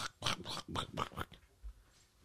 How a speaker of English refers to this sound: I hear the dogs drinking water in the background. That's disgusting. Take their water away from them.